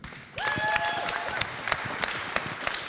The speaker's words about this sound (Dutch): Laten we een groot applaus geven.